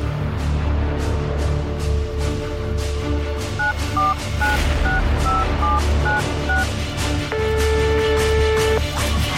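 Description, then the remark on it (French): A rapid series of short telephone keypad tones as a number is dialed, each beep distinct and evenly spaced, followed by a longer steady tone, all over a constant low background hum. “Je l'appelle tout de suite.”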